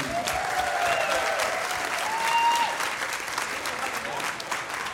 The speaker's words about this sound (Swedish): Eh, han är jätterolig och nu kommer han då in i podden till era applåder